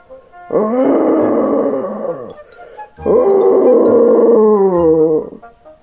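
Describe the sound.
Two long, loud, drawn-out deep roars, each lasting about two seconds with a short pause between, a voice imitating a bear's roar in a told story, with no other talking.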